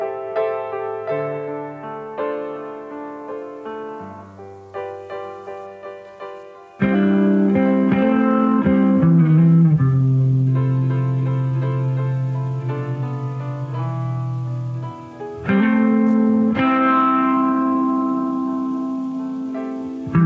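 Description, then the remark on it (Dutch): A normally tuned Fender Telecaster electric guitar plays picked single notes softly at first, then breaks into louder, ringing sustained chords over a low bass line, with no talking. “het is gewoon een normaal gestemde Fender Telecaster”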